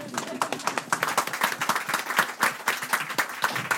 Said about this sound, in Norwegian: Det vil jeg gjerne klappe for. Ja!